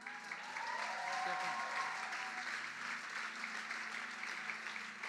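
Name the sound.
audience applause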